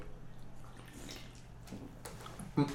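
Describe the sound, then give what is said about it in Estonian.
Quiet liquid sloshing and faint drips as someone takes a drink, ending with a brief louder splash or gulp near the end. “võtame juua.”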